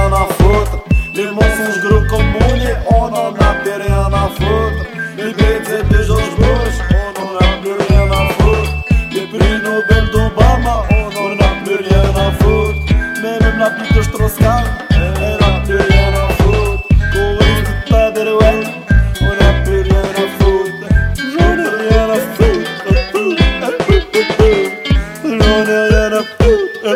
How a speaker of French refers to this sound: Bah, on vient d'écouter une chanson